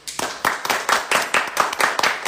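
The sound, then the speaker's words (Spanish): A small group applauds themselves, clapping together for a couple of seconds, with sharp hand claps in a quick, uneven rhythm and fairly loud throughout, like brief applause with no talking. “Gracias, Un aplauso para nosotros.”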